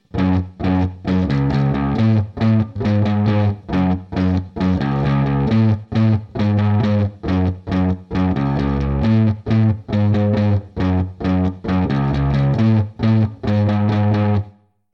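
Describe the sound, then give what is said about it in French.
A distorted electric guitar, played through its neck pickup, plays a steady, chugging riff of short repeated chords with brief gaps, warm and bass-heavy with rounded highs, loud, with no voices. “Et lui, il va capter le son de la corde plutôt au milieu de sa course, un endroit où la corde vibre plus librement.”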